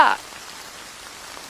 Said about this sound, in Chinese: 话音刚落，就下起了倾盆大雨。